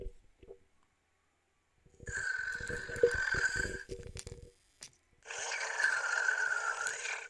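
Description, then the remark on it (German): A small toy robot lets out two long, buzzy, electronic snoring sounds, each lasting a couple of seconds and separated by a brief pause, fairly loud with no talking. “Das sind nicht wir. Das ist der Roboter.”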